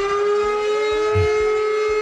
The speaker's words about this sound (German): Um 11 Uhr gehen die Sirenen und die Warn-Apps los, also bitte nicht erschrecken.